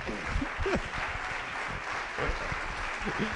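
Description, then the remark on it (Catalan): An audience at the fifth Ràdio Pista gala applauds Pere Aragonès, president of the Generalitat, steadily: a dense, continuous patter of many hands clapping at an even level throughout, with a few faint voices mixed in underneath. “Un, aplaudiment per Pere Aragonès, no?”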